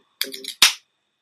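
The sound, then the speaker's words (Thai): A third can of beer pops open: a short crackling metallic click of the tab, followed immediately by a loud, sharp hiss of escaping gas that fades quickly, with no talking. “อันนี้เปิดเบียร์กระป๋องที่สามนะครับ”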